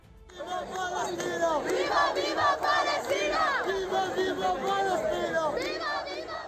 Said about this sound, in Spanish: Son los gritos de cientos de manifestantes congregados hoy en el centro de la capital navarra, en Iruña.